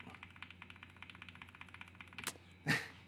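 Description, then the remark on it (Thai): Rapid, steady clicking of mechanical keyboard switches, a dense run of quiet, even keystrokes, ending with a couple of louder, heavier key hits near the end. No voices. “อันนี้ให้ฟังเสียง อ่ะอันนี้ อันนี้เป็นเสียงของตัวออฟแบล็ก”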